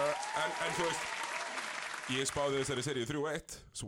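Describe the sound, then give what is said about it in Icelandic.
A quick burst of hand clapping from a few people, fairly loud, with a man talking over it and continuing after the claps fade. “ég að klappa það já, ég- ég- bara smá klapp sko, það er pínu sögulegt”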